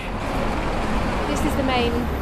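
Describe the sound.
Steady, dense roar of heavy road traffic on Crouchen Broadway, a busy main avenue in north London, a continuous uninterrupted rumble of cars, buses and trucks passing, with a faint voice murmuring underneath.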